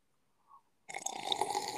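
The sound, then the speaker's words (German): A loud slurp of hot tea from a cup, a hissing, airy sip that starts abruptly after a brief faint sound and continues steadily for about a second. “Schlürfen wir noch mal an der Tasse?”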